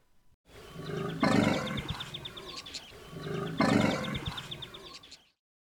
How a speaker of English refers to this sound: Sounds like dinosaurs and birds roaring.